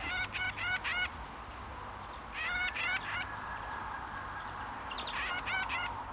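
A great grey shrike calls in three bursts of quick, harsh, nasal notes, each a short rapid series of four or five, over a steady low background hum.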